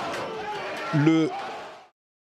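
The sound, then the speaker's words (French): A crowd forcing the doors of the American parliament in Washington: dense, agitated crowd noise with many voices clamoring at once; a loud shout or cry rises above the din near the middle before the sound cuts off abruptly. “vous entendez, je sais pas si vous vous rendez compte, c'est une foule qui est en train de forcer les portes du Parlement”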